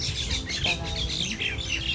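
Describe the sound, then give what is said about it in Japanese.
Birds chirp and tweet continuously in a busy outdoor chorus, with overlapping high calls and an occasional squawk over a steady background hum. “お鳥さんが泣いてる”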